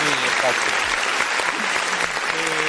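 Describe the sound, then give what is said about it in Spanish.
Sustained applause from a crowd, a steady dense patter of many hands clapping at an even, fairly loud level, with faint voices mixed in beneath it. “Y ya está, aquí yo que el aplauso es muy largo, dura mucho.”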